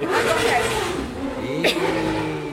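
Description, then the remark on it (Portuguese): A motorcycle engine revs up, its pitch climbing and falling as it roars past, loud and steady against a noisy street background with possible voices underneath; guys riding motorcycles past and fooling around. “passa sempre uns caras de moto aí avacalhando, né?”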